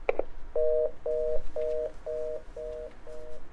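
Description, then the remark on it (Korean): A coin telephone's disconnect tone after a call to the caller's father drops: a short click, then six identical low beeps in a steady, quick on-off rhythm, clear and unbroken, with no voices. “전화는 끊겼지만 내 손엔 동전 몇 개가 더 남아 있었다.”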